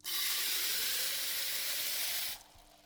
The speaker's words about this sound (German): Aber wie bereite ich das eigentlich zu? Ganz einfach. Aufreißen, reinschütten, 200 Milliliter Wasser dazu